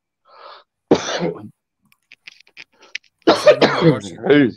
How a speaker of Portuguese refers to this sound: Uma tosse bárbara aqui.